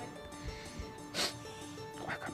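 A husky dog vocalizes in drawn-out, wavering, almost speech-like tones as if saying "mamá", with a brief sharper burst partway through. It sounds moderately loud, with no one talking over it.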